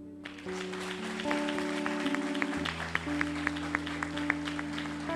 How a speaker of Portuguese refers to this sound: Agora, por favor, pare de aplaudir. Agora você vai aplaudir a Deus pela tua vida.